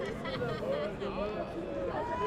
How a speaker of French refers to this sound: Des gens continuent à discuter encore par terre.